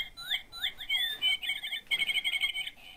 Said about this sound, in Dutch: Het vogeltje, hoor je hem? Ja, ja.